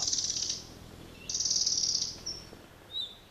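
A red-breasted flycatcher sings high, rapid trilled phrases: two sustained buzzy runs separated by a pause, followed by a couple of brief, sharp notes, clear against a quiet background.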